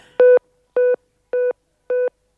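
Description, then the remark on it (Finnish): A telephone busy tone after the other caller hangs up: four evenly spaced, steady electronic beeps repeating in a regular on-off rhythm, clear with no voices. “Se sulki puhelime. Mulle.”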